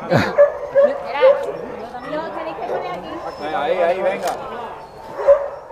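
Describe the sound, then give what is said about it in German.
Several dogs bark and yip in short, scattered bursts amid a busy background of people chattering, the barks fairly loud with a few whimpers mixed in, as the dogs' names are called and a chip reader checks that each is the right dog. “Mit dem Chip-Lesegerät wird noch einmal überprüft, ob es der richtige Hund ist.”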